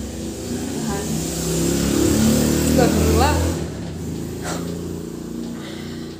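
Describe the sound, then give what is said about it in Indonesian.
A motorcycle passing by outside revs and swells to a peak midway before easing off, a low steady drone beneath people talking. “ada tadi lewat iklan motor ya polusi udara ya”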